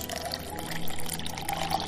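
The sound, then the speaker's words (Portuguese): Water pours steadily into a glass, a continuous splashing trickle lasting the whole moment with a slight rise in fullness as it fills. “Ela, ela serve água para vocês.”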